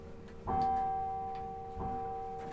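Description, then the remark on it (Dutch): A tower clock bell in Apeldoorn strikes twice, slowly and resonantly, each stroke leaving a long, humming ring that lingers and overlaps the next. No voices are heard. “nou denken ze allemaal dat het uh, vier uur is.”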